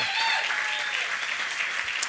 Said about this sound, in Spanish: Y denle otro aplauso a Dios porque mire, ese video de resumen, el recap del año, ha sido un año increíble. Vamos, denle un aplauso más fuerte a Dios.